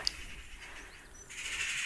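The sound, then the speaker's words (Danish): Faint birds chirping outdoors: a short sharp chirp at the start, then soft, scattered twittering over a quiet background hiss, with no voices. “Nu kommer fuglene.”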